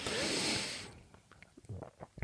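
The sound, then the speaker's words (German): A burst of hissing noise gives way to close, wet mouth sounds and gulping clicks, like someone noisily swallowing a drink right at the microphone. Nobody speaks. “Das war ein sehr lautes Schlucken gerade.”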